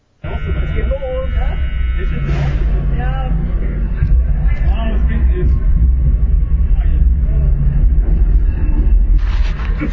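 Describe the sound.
A loud, continuous rumbling roar of a roller coaster in motion, recorded on board, with rattling and rushing wind, and voices shouting and whooping over it throughout.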